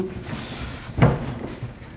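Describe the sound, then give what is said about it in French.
A single door clunks open, one sharp wooden knock with a short rumble after it, followed by quiet shuffling as someone moves through against a low background hum. “Attention, on a encore une porte à franchir.”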